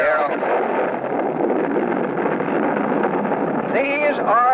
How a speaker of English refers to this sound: One of them was a little girl counting down and picking the petals off a daisy. Then there's the countdown. And then the bomb goes off.